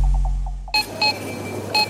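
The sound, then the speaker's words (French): Three sharp, high-pitched grocery checkout scanner beeps sound at uneven intervals over a steady hiss, after a brief stretch of low hum with faint soft blips. “Trois bips.”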